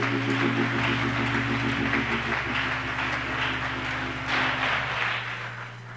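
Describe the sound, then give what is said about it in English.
A church audience gives God a hand clap at a morning service, clapping together in a dense, steady wash of applause that lasts throughout, with sustained low tones droning underneath and the clapping easing off slightly at the end. “Let's give God a big hand clap this morning.”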